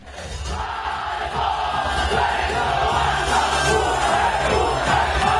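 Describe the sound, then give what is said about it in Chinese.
A dense, steady roar of an audience cheering and shouting at a live idol group performance at Star Dream Theater (星梦剧场), an enclosed theater holding 343 spectators. Loud and continuous throughout, with overlapping voices blending into one sustained wall of sound. “我们现在听到的这个片段是星梦剧场的现场公演。”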